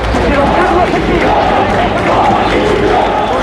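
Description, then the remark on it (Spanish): A large crowd of hundreds of people shouts and roars continuously outside a parliament, a dense, loud wall of overlapping voices with no pauses, rising and swelling slightly throughout. “estamos saliendo, no sabes la que hay montada aquí fuera. Claro, es que, es que era impresionante, imaginábamos que debía haber bastante expectación, pero claro, cientos de personas, cuerpos de seguridad, veo periodistas”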